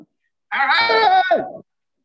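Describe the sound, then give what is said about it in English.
A woman lets out a single strained, high-pitched yell lasting about a second, wavering and slightly bleat-like, loud and clear with silence before and after. “what are you yelling about?”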